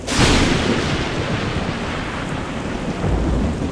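Distant thunder rolls in with a sudden burst and keeps rumbling low and heavy over steady rainfall hiss, swelling again near the end; no voices.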